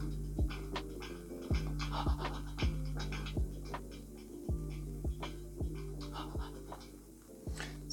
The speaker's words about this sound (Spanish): Este hipo pues no solo es, no solo es hipo, no solo son griticos, no solo son cositas así, sino que también tenemos respiraciones, ¿sí? tenemos cositas como esta